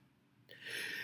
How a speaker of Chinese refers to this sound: 打个喷嚏